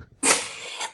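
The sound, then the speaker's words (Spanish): A dog with a cold sneezes once, a sharp, breathy burst that starts abruptly and trails off into a hissy exhale, fairly loud, with no talking. “Ese es mi perro, el que está estornudando.”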